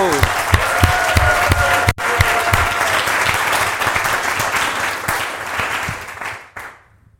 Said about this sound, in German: Und hier ist auch schon unsere erste Prominente, Franz Beckenbauer. Applaus.